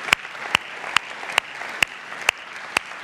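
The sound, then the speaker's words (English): Applause from an audience: seven sharp, evenly spaced claps ring out over a steady hiss of background crowd noise, moderately loud, with no voices. “Make some noise for him wherever you are.”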